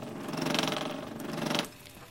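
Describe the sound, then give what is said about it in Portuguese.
A printer's print head whirs and rattles as it moves inside the machine, a steady mechanical buzz lasting about a second and a half before stopping abruptly, leaving quiet. “Você ouve o barulho dentro dela, do cabeçote se mexendo”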